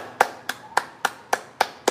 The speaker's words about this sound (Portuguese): salva de palmas pros moleques. Pra vocês, mano. Uma salva de palmas pra ordem.